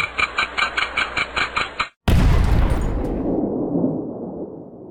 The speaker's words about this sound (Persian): بالاخره توپ تحویل سال شلیک شد